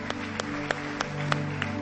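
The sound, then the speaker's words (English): A church audience claps in unison in Jesus' name: six sharp, steady claps evenly spaced about a third of a second apart over a low, sustained background hum. “Come on, clap.”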